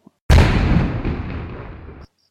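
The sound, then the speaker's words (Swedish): A single loud cannon shot sound effect fires with a sudden deep boom, then a heavy rumbling roar trails off for nearly two seconds before stopping abruptly. “På, vi kör kanon då.”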